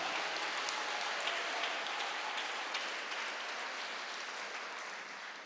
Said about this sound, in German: Und wir haben heute noch einen ganz besonderen Gast da, einen ganz guten Freund, das ist Walter Heidenreich. Auch dem könnt ihr schon mal einen Applaus geben.